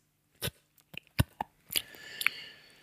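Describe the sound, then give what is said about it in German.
Wet lip smacking and mouth clicks right up against a microphone, several sharp short smacks in an irregular rhythm followed by a softer moist sound, with no talking. “warum der nicht seine Fresse von dem Mikro wegnehmen kann und woanders schmatzt.”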